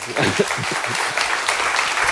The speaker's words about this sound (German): Ihr Applaus für Sabine Rennefanz.